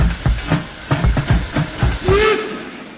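A steam train chuffs in heavy, rhythmic exhaust beats, working hard as it climbs steeply up to the Rennsteig on one of the steepest railway lines in Germany, then a brief hiss and a rising whistle-like tone cut through near the end.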